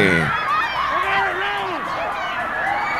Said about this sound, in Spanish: Sí. se escuchan los, gritos desesperantes, desesperados de los compañeros, ¿verdad? Al ver que, que sus mismos amigos, en un abrir y cerrar de ojos,